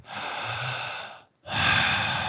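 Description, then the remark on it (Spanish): Two strong, deep breaths, a long airy rush of about a second, a brief pause, then a second loud, forceful breath, with no talking, taken by a man during a guided deep-breathing exercise after a count of three. “Uno, dos, tres. Fuerte, …. Eso. Potente”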